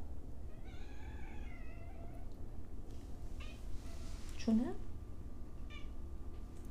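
A pet cat meows a few times, joining in during a talk: a drawn-out mewing call early on and a sharper, louder meow later, over a steady low background hum.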